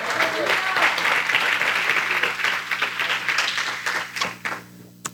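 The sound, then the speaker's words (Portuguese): A church audience breaks into sustained, dense applause for the Lord that holds steady for several seconds, then thins into scattered claps and fades out near the end. “Quem pode dar um aplauso a esse Senhor?”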